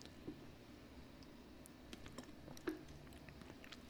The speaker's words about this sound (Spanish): Déjame tomar un sorbo de té.